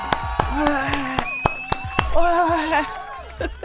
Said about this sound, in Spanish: ¿Te parece que, parece que hagamos un, pequeño aplauso para todos los aquellos que han levantado un room? Por supuesto. Por favor, aplauso. Tú y yo solos, eso. No, pero más gente va a aplaudir.